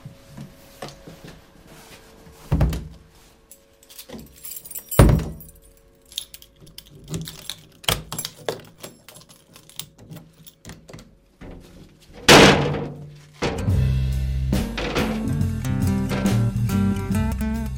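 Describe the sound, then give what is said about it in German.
A heavy door swings shut with a solid thud, followed by keys jangling and metallic clicks of a lock turning, then a louder rattling clatter near the end; no one speaks. “Machen wir alles zu wieder.”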